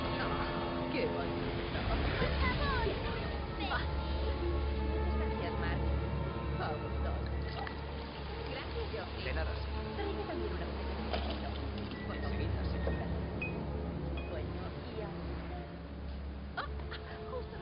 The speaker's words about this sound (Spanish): Un yate navega por el mar.